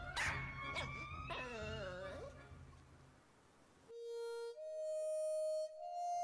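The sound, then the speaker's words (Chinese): A dog barks several times in quick succession, sharp and high-pitched yips with a whiny edge, fading out before a few steady sustained tones take over. “正挥动着他的大扫帚向他打来，汪汪汪汪！”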